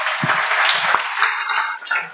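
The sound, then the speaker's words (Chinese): A group of people applauding, a steady, dense wash of many hands clapping at once that holds for about two seconds with a few sharper individual claps poking through. “好，掌声鼓励，好。”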